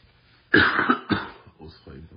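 Two harsh coughs in quick succession from a person who is still ill, the first louder and longer, followed by a softer trailing rasp of breath or throat noise.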